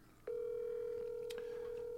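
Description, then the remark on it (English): A telephone tone sounds as a number is dialed to call the speaker's daughter: a single steady, mid-pitched electronic beep comes in after a soft click and holds unbroken, with a faint tick partway through and no talking. “Let me call my daughter.”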